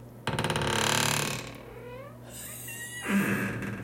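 A door at a bathroom washbasin in a home creaks open: a loud, grinding groan that slides into a thin squeaky whine, then a second shorter creak near the end. No one speaks.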